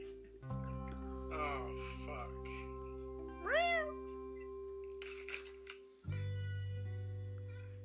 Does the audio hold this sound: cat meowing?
yes